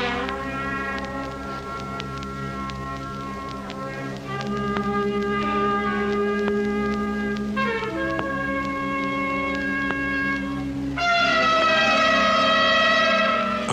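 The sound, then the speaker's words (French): The Portsmouth Symphonia, an orchestra of students who cannot play, holds long, wavering, out-of-tune chords that shift every few seconds, sour and blaring, swelling louder toward the end with no voices. “Oui, la particularité des musiciens du Portsmouth Symphonia, c'est qu'ils savent pas jouer.”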